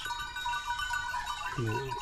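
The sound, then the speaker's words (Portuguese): Several goats bleat at once in a herd tended by a herder who walks with them daily, their wavering cries overlapping steadily, with one lower bleat standing out near the end. “Não acompanho, acompanho o rebanho, tem que se acompanhar sempre, não pode vir o lobo ou assim. E compro para as cabras comer e, assim, para melhor, para elas andar melhor.”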